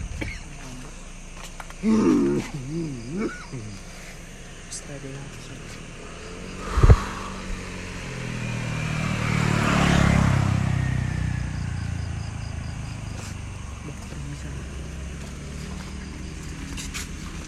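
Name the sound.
car passing by outside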